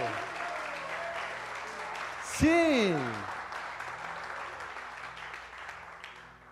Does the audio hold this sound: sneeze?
no